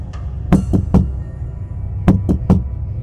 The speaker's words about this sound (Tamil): யாரோ அந்த rest room கதவை திறக்க முயற்சி பண்ணுறாங்க ஆனால் அவங்களால திறக்க முடியலை திரும்பவும் அவங்க கதவை தட்டிகிட்டே இருந்ததுனால இந்துஜா கதவை திறந்து வெளியே வந்து பார்க்குறாங்க